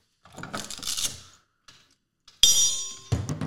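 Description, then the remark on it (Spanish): A single sharp strike of a boxing bell rings out loud, its metallic tone hanging briefly before other noise cuts in, following some earlier clattering and rustling. “No vais a, no vais a tirar madrazos, cabrón, voy a tirar la campana.”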